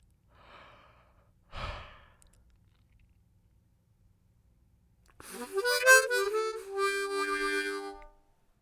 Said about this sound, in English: I kind of feel like in the recording, it almost you can't tell that I'm supposed to be yawning because they're fake yawns, you know. Although fake yawns, I think, might also be contagious.